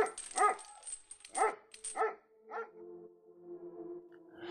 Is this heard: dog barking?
yes